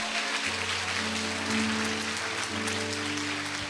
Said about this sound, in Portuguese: Você pode dar glória a Deus por isso, irmão. Aplauda Jesus de verdade.